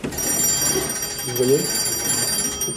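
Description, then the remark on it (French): An old-fashioned telephone on a period switchboard system in a wartime blockhouse, still working 80 years later, rings continuously for the whole stretch, a bright metallic trill at steady loudness, with faint voices murmuring underneath. “80 ans après, les téléphones fonctionnent.”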